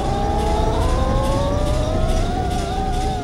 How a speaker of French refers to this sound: Le Titanic avance. Dans la salle des machines, les moteurs fonctionnent à plein régime, ça rugit comme un animal sauvage.